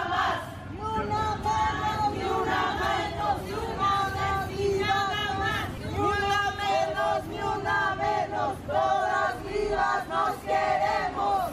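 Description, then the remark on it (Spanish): A large crowd of women at an 8M protest march heading to the Zócalo shouts chants in unison, high voices rising in rhythmic bursts every second or two, loud and continuous over a dense murmur of background voices. “para concentrarse en la glorieta de las mujeres que luchan y de ahí, gritando y juntas, buscarán llegar al Zócalo.”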